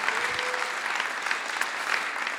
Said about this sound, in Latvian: Tāpēc uh, vēlreiz man, man prieks, man jādod tev aplausus, ka tu esi šeit.